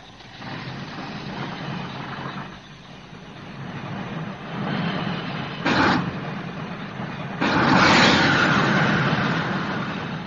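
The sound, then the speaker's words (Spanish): A heavy diesel engine of a vehicle likened to a dragon rumbles steadily, growing louder as the vehicle approaches, with harsh roaring surges breaking through near the end. No voices are heard. “Un dragón que anda con motores diésel.”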